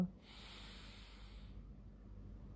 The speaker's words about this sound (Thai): 1. การหายใจแบบใช้กล้ามเนื้อกระบังลมหลักการหายใจโดยปกติทั่วไป หายใจเข้าท้องป่อง หายใจออกท้องแฟบ โดยทำสามถึงห้าครั้งอ่ะพร้อมกัน